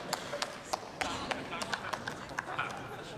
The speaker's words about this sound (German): Gut, das ist dann wahrscheinlich mehr Beifall als die Durchführung.